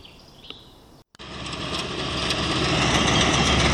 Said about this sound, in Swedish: Traktor. Typ eh, halv nio på kvällen.